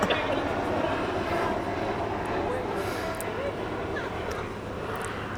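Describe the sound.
A helicopter drones steadily overhead, its low, throbbing engine rumble filling the background at a constant, fairly loud level throughout, with faint voices underneath.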